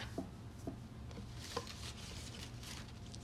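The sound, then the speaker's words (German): Soft rustling and light scraping of sheets of coloured paper (pink, green, red and yellow) being shuffled and slid against each other, with a few small taps at irregular moments and no voices. “Okay, ich denke, ich, ich habe hier mal so ein paar Papiere.”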